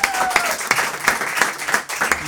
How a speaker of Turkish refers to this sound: Yılın köşecik yazarına gidelim ve e, tabii ki herkesin tahmin ettiği o isim. Ahmet, Ahmet Hakan. Bence bir alkışlayalım kendisini.